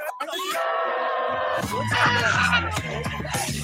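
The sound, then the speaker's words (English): An anti-Trump woman lets out a long, loud, anguished scream, then breaks into ragged, wailing cries and sobbing vocal sounds that continue. “That screaming anti-Trump lady.”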